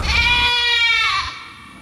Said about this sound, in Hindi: उसने हवन के बगल में बकरी बांध रखी थी और हर आहूति के साथ बकरी जैसे चिल्लाती थी मैंने आज तक कभी किसी बकरी को ऐसे चिल्लाते हुए कभी नहीं सुना